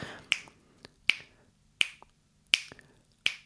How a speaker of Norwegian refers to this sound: Så når man har en takt, så har man jo da en grunnrytme som går. Eh, vi kan jo ha et eksempel her med bare 4-4, og da knipser jeg bare litt bak mikrofonen her, ikke sant?